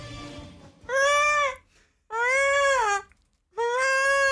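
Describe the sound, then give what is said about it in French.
A person imitates a herring gull's cry: three loud, drawn-out wailing calls, each slightly rising then falling, separated by brief pauses. “Par contre, sur le goéland, t'es monté jusqu'en en études supérieures.”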